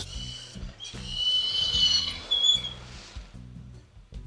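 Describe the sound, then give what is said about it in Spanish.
A dog holding a small piece of hard bread whines in thin, high, squeaky strains that creak like an old hinge, drawn out over a few seconds, with soft low thumps underneath. “Suena como una bisagra vieja, pero un perro.”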